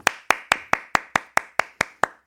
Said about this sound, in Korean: 듣고 계시죠? 듣고 계신다면, 소리치지 말고 박수쳐.